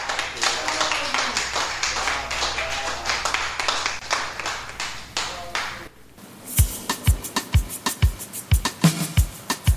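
A crowd applauds with dense, crackling claps for about six seconds, then the clapping gives way to sharp, evenly spaced percussive hits with deep low thumps.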